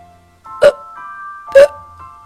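Two short, loud burps from a spotted snake burping after a full meal, evenly spaced about a second apart, each a brief throaty gulp set against soft, steady background music.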